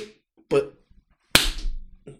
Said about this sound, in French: ça c'est des claques derrière la nuque, comme ça des stangalaks On appelait, ça au collège des stangalaks